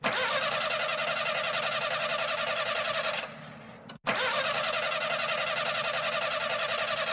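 An engine cranks over and over with a loud, rhythmic whirring chug. It stops briefly, then cranks again without ever catching. No one speaks.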